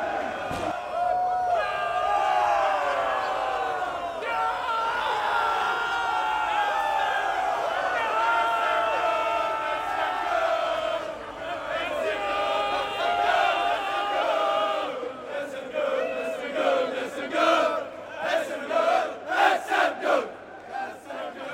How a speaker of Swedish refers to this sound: Det ni just nu hörde var Färjestads guldjubel ute på isen i Coop Norrbotten Arena, eller som det i folkmun kallas, Delfinen